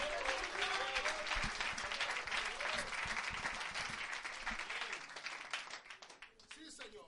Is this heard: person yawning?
no